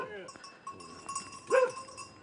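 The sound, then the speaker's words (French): A shepherd's sheep bleat a few times, with one louder, wavering bleat standing out near the end and faint voices murmuring in the background. “Ah, il y a vos moutons qui sont juste en dessous Oui.”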